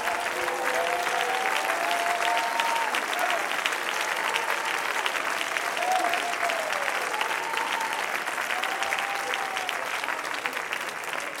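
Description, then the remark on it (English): An audience claps hands in a dense, steady burst of applause that keeps going for the whole stretch, with faint voices calling out and rising above the clapping now and then. “Somebody clap your hands and give me praise.”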